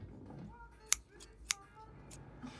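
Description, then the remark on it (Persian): Two crisp metallic snips from a pair of left-handed scissors being tried out, spaced about half a second apart, with a couple of fainter cuts and soft handling noise around them. “بله جانم قیچی مخصوص چپ دستا بفرمایید منتظر یه همچین لحظه بودم اصلا که ازش رونمایی کنم قیچی مگه چپ و راست داره”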